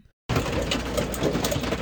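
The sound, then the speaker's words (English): Hail pounds the roof of a new Airstream travel trailer just taken out of storage, in a dense, loud roar of countless rapid impacts, starting abruptly and continuing steadily, unbroken, with no voices. “Pretty sure that's the sound of hail on our new Airstream that we just got out of storage.”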